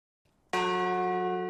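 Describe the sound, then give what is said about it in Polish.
A large bell in Folbuszowa in Podkarpacie, Poland, struck once symbolically for unborn children; its deep, rich tones sustain and slowly fade, with a faint bit of low noise just before the strike. “W Folbuszowej na Podkarpaciu symbolicznie zabito dziś w dzwon głosu nienarodzonych dzieci.”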